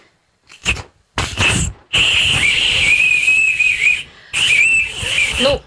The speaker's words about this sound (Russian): Вот, а вот это наша русская свистулька. Вот, это вы все знаете, глиняная такая.